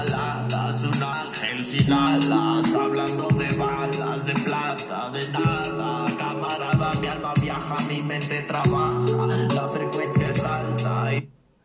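A loud rap track plays close up, with a steady hip-hop beat, crisp percussion hits and deep sustained bass notes, then cuts off abruptly near the end.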